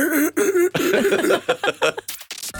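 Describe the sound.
A man's voice mimics crying, with a run of loud, wavering sobs in choppy bursts that end in a few breathy, raspy gasps.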